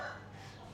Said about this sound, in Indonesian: ada ayam berkokok.